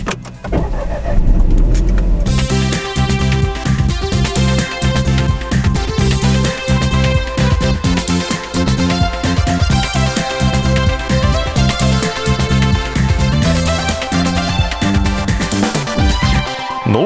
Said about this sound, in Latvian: Brauksim un raudzīsim motoru.